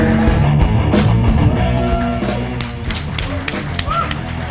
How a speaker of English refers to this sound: I'll turn up the sound so you can hear the monsters dueling to the death.